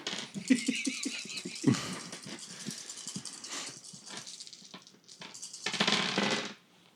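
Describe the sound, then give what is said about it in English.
A handful of dice, three green and two purple, clatter and tumble across a hard tabletop in a roll to try to hurt a character, a sharp rattling burst followed by scattered clicks, then a second louder rolling clatter near the end. “And he's going to roll on a post check to try and hurt you.”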